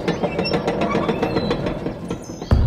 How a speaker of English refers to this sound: Ooh, watch for the moat. Here comes the drawbridge.